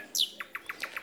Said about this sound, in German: Also wenn ihr denkt, ihr hört jetzt gerade einen Vogel, ihr hört, ihr hört einen Vogel. Und das ist eine schöne Nachtigall.